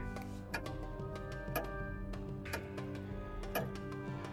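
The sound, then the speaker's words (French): A clock ticks steadily, with a sharper accented tick about once per second and softer ticks between, over a constant low electrical hum. “Son tic-tac régulier rythmait imperturbablement la vie de cette pièce depuis plusieurs mois maintenant.”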